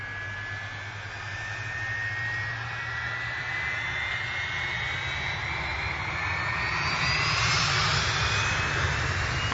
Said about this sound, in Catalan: Aquest avió que hem agafat ens porta directament a Ghent, la ciutat belga